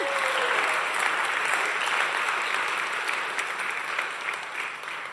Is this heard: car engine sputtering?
no